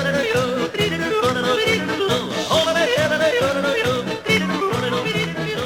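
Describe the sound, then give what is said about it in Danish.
Upbeat instrumental background music, secretly swapped in as a radio afternoon show's background music, plays on its own with a steady, regular beat and sustained melodic tones, loud and continuous throughout with no voices. “Og der tænkte jeg, kan jeg vide, hvor lang tid der går, før de opdager det, hvis deres baggrundsmusik lige pludselig lyder sådan her.”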